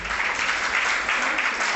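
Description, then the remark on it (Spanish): An audience applauding the Lord steadily, a dense wash of many hands clapping at an even, fairly loud level throughout with no pauses or voices standing out. “Un aplauso a nuestro Señor por ello.”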